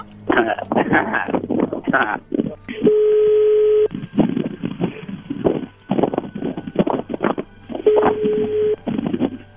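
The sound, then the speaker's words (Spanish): A telephone rings twice on the line as a call is placed again, two steady one-second ringback tones spaced several seconds apart, with people talking before, between and after them. “A ver, márcale de nuevo.”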